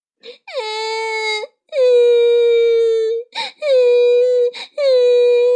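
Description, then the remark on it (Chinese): Loud, drawn-out wailing cries of two bear cubs hiding in a corner, made by a human voice: four long, high-pitched moans that dip and then hold steady, broken by short gasping breaths. “看到爸爸妈妈在吵架，两只小熊害怕的躲在角落里，大声的哭了起来。”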